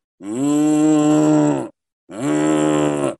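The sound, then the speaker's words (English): Two loud, deep foghorn blasts at Levi Stadium, sounded when the 49ers score, each a steady, droning tone held for over a second with a short gap between, the second slightly shorter than the first. “So all of a sudden, every time the 49ers score in Levi Stadium, you hear this loud foghorn go off”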